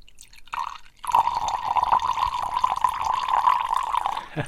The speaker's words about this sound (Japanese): これはね、バカルディのゴールドラムですね。ゴールドラムにコーラを入れて、えー、ラムコークを作りますね。